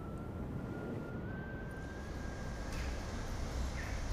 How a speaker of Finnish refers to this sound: Jossakin kaukana jyrisee.